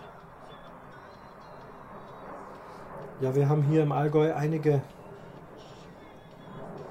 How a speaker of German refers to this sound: Es fliegt ein Kampfflugzeug hier rüber. Wo kommt das denn her?